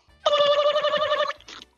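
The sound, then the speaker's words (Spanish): A telephone rings with a bright, warbling electronic trill lasting about a second, followed by a short cut-off second burst, with no one talking. “bueno, más o menos igualito, marco uno por teléfono.”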